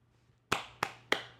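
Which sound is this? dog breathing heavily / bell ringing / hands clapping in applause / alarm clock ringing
hands clapping in applause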